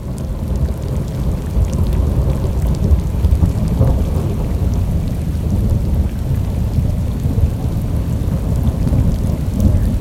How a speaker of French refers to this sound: le premier, c'est euh, la pluie, en fait, tout simplement, qui, euh, commence avec le, tonnerre au loin qui gronde, comme si on était venu se réfugier dans le château pour se mettre à l'abri de, cette, euh, de cet orage.